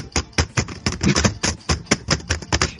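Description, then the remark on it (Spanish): Rapid, uneven clicking of keys on a computer keyboard, fairly loud, with a dozen or so sharp taps in quick irregular bursts and no voices. “Ya, eso era el teclado.”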